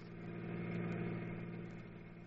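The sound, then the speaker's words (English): A car engine runs steadily with a low, droning hum that swells slightly and then eases as Mr. King's car pulls away, driving off for the insurance office, fairly loud, with no voices. “We got into his car and drove off for the insurance office.”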